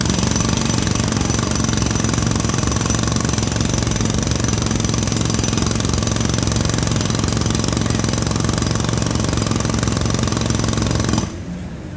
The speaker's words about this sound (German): Wenn äh, neben mir der Presslufthammer loshämmert, dann ähm, höre ich nicht mehr irgendwie die Wand, äh, den Schall äh, ich höre die Autos nicht mehr.